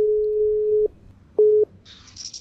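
telephone ringing tone

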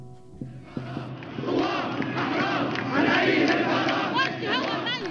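crowd of demonstrators chanting

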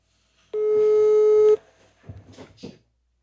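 telephone ringing tone

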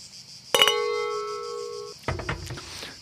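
wine glasses clinking

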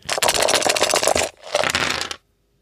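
dice being rolled

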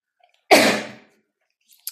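sneeze

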